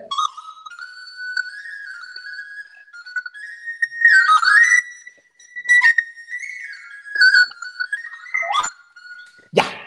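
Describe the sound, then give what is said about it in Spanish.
The birthday song 'Las Mañanitas' played live for a listener's birthday on a high, breathy, whistle-like instrument, single notes gliding up and down for about ten seconds with no talking, ending in a soft low thump. “Y quiero tocar las la a Hassel, Margarita Castro, que es una escucha que siempre está aquí, una, una, eh, hoy es su cumpleaños, le voy a tocar rápido las mañanitas.”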